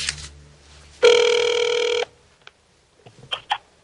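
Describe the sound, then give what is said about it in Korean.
A single steady telephone ringback tone sounds for about one second, clear, followed by faint clicks and brief line noise before silence, as a call is placed to lawmaker Park Jie-won. “특별조사단 보고서에 이제 아주 낯익은 정치인의 이름이 등장하는데 박변호 의원님인데 전화 연결 한번 해보도록 하겠습니다.”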